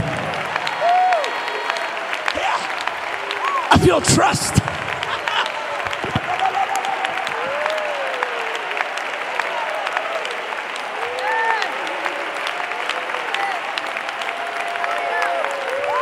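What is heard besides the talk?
audience clapping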